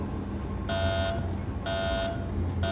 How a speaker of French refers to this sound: Éteignez cette foutue alarme.